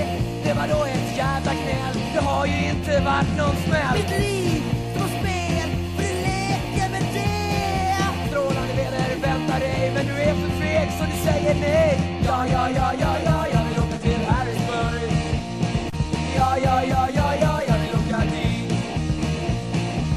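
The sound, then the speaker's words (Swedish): A loud, full-band punk reggae track plays continuously, with a steady offbeat groove, driving bass and guitars, and energetic shouted vocals throughout. “Ska vi ta och köra låt? Det låter bra. Ska vi se här. Vi tar eh, … då med ….”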